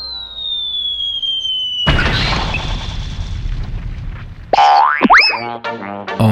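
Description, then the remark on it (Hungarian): A descending whistle gives way to a loud, crackling explosion effect that rumbles for a few seconds, then cartoonish boing and squealing sound effects bounce in at the end. “A műsorszám hangrobbanás megjelenítést tartalmazott.”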